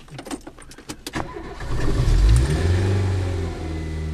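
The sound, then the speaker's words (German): The engine of a 30-year-old curry-coloured Renault R4 with colourful decorative stripes starts with a few clicks and jangles, then revs up and drones steadily and loudly as the car pulls away, driven in Regensburg by a 71-year-old Capuchin friar. “Der 71-jährige Kapuzinerpater fährt einen Renault R4.”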